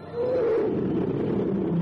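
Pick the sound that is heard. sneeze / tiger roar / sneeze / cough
tiger roar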